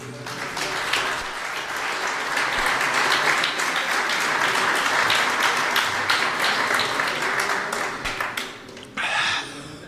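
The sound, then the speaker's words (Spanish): A crowd applauds steadily for several seconds, a dense, bright wash of many hands clapping at once, holding loud and even before tapering off near the end. “Está por acá, un aplauso para él.”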